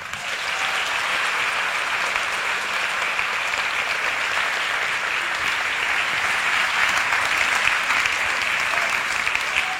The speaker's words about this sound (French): Et il va venir nous raconter pourquoi. Merci d'applaudir très fort François Descraques.